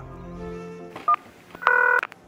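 Two telephone keypad tones sound as a number is dialed on arriving at an airport, a short beep followed by a longer, louder one, clear over a quiet, steady background hum.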